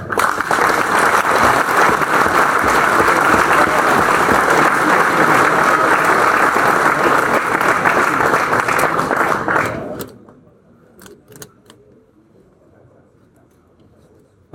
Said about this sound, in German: Staatssekretär, auch äh, vom Präsidenten noch den herzlichen Dank, den Applaus. Da können Sie noch ein bisschen üben, ehrlich gesagt.